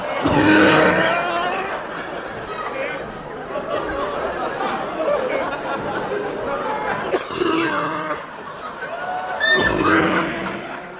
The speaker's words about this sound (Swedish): Det här du hörde nu, det är Robert Gustafssons eh, trademark-hosta i Killinggänget.